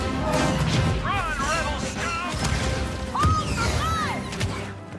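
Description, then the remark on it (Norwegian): Video game battle sound effects from Star Wars Battlefront (PC, Xbox One, PlayStation 4): a dense, loud barrage of crashes and impacts layered with repeated swooping, zapping blaster-like chirps, continuous for the whole stretch with no pause. “Her hørte vi altså lyd fra Star Wars Battlefront, som nå er utgitt på PC, Xbox One og PlayStation 4.”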